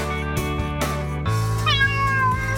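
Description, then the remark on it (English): A cat meows repeatedly in drawn-out, wavering cries, fairly loud, with a steady low hum running underneath and no talking. “Have you lost your cat? Uh-oh, steady kitty.”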